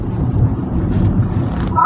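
A steady, fairly loud low rumble of a car driving, heard from inside the cabin, with constant road and engine drone filling the whole stretch without a break.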